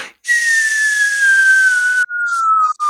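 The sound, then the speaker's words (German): A person whistles a long, slowly falling tone, imitating an incoming grenade, with breathy hiss around it; the pitch glides down steadily, breaks briefly, then continues lower before cutting off. “Genau, wir tauchen jetzt und dann kann uns die Granate nicht mehr erreichen und du hörst noch dieses”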